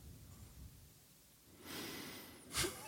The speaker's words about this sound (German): Ein tiefes Schnaufen.